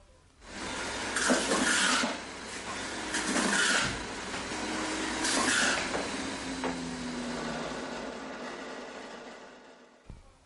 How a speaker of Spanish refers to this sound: Este sonido seguro que se escuchaba mucho en tu cocina. Sí, desde por la mañana hasta por la noche. Es el sonido de una licuadora que es característico, que no es el de una batidora. No, no, no, es licuadora, licuadora.